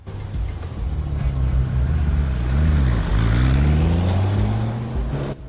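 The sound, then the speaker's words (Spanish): A loud, continuous engine of a black Porsche driven by Navas drones with a deep, steady tone. Around the middle its pitch dips and then climbs again as it revs, with a broad rushing noise throughout and no voices. “Ari cierra tras de sí la puerta del taller y se monta en el Porsche negro que conduce Navas.”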